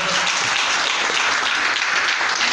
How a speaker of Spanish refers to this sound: Dale un aplauso a Jesús esta tarde, por favor.